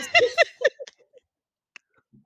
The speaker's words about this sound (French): Je veux boire une gorgée là.